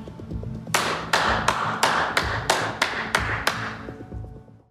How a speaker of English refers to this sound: And then he claps like a maniac. Such a maniac. He looks so scary.